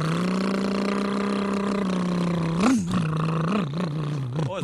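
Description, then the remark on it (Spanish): A voice mimics a motorcycle engine with a sustained buzzing drone, then rev-like wobbles and sputtering pitch swings near the end, loud, no other sounds. “moto. es moto. O pues dije, una motocicleta.”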